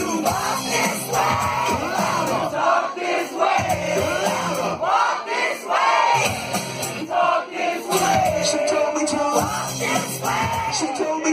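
A large live crowd at a rap-rock concert roars and yells together during a rock song, many voices chanting and shouting in loud surging waves that swell and dip continuously.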